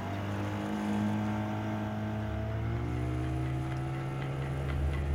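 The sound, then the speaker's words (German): A small outboard motor boat, started before dawn at a fisherman's house, putters out across smooth water with a low, droning engine hum and faint rhythmic ticking, staying even in loudness throughout, with no voices. “im nahen Fischerhaus seinen Außenbordmotor anreißt. Dann tuckert er hinaus und da die Schallwellen auf der glatten Wasserfläche ungehindert dahingleiten, wird das Gedröhn des sich entfernenden Kahns kaum leiser.”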